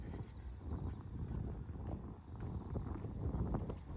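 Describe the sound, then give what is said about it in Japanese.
Strong wind buffets the microphone outdoors while walking, in continuous low, rumbling gusts, thudding and roaring for the whole stretch with no voices. “おっとおっと風が風がきついですね”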